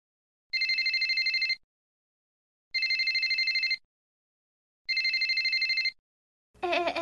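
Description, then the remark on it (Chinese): A mobile phone rings on Huagang Broadcasting Station FM 88.5 in three steady one-second bursts of bright, high trilling tones separated by short silences, followed by a brief burst of different sound at the end. No one speaks. “手机收起来，准备好啦！电影要开始嘞！”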